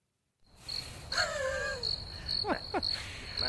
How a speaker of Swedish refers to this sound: Ja, nej men där, ja, jag fick en eh, härlig syrsa förra veckan och eh, dagens syrsa går nog till dig